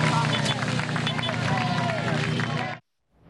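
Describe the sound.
A crowd claps steadily and loudly at a singer's burial as the body is buried, dense applause mixed with a hubbub of voices, then it cuts off abruptly into brief silence.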